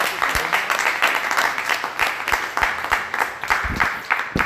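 An audience applauds, many hands clapping in a dense, steady patter that holds at a fairly even loudness for several seconds, with no voices speaking.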